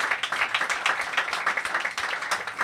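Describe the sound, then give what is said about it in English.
The audience at the Hot Mess Comedy Hour applauds steadily, many hands clapping in a dense, continuous patter that stays fairly loud and even for a few seconds with no voices standing out. “Let me get some claps”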